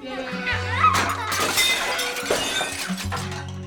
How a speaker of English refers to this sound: The tray shattered on the floor, sending fruit and shards of pottery everywhere.